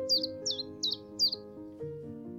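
A chiffchaff calls four quick, bright chirps in a steady rhythm, clear, over a low sustained humming drone that continues after the bird stops.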